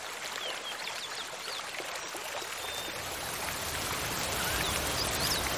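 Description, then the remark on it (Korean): A sudden rain shower pours down in a dense, steady hiss that grows heavier partway through, with a few faint bird chirps in the background. “수아와 친구들이 계곡으로 내려간 후 몇 시간쯤 지나 소나기가 내렸다”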